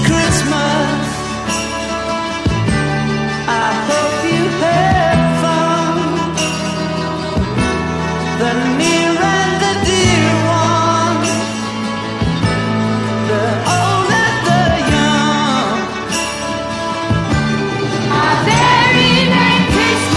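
A Christmas pop song plays loudly and continuously, with a full band, sustained chords, a steady beat and bright high shimmer, filling the whole stretch without any speaking over it.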